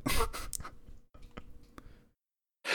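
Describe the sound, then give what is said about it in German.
A quick burst of papery rustling and crisp flicks as pages of notes are leafed through, a few sharp snaps, then a brief silence before another rustle starts. “das klingt so, als hättest du jetzt so ein fettes Notizbuch, das du durchblättern müsstest.”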